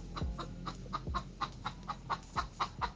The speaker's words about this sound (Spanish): ese cacareo de las gallinas y cómo canta el gallo.